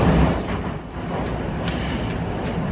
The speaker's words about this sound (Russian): Слышно, как люди говорят все это. Это, э, ну, это метро, между прочим. Помните вот эти вот? И поехала куда-то свистит, стучит, что ты думаешь?